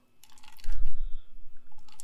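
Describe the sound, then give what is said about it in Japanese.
Sipping a Dragon Boost energy drink, followed by a couple of soft, wet swallowing gulps, with small liquid clicks and mouth noises; quiet and intimate, no talking. “まあそんな感じで、そう、だから今ドラゴンブーストってのを飲んでるところです。”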